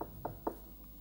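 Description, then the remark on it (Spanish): Three quick knocks on a door, evenly spaced and fairly soft, followed by a faint fourth tap, with a low hum underneath and no voices. “Toca la puerta.”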